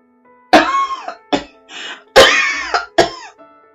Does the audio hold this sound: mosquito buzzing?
no